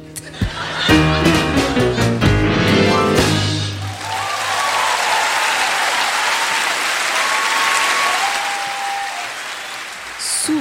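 A few seconds of music end, then an audience breaks into loud, sustained applause, a dense steady patter of many hands clapping that carries on for several seconds.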